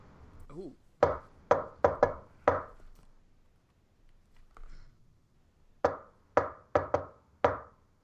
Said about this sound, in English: tapping, keeps repeating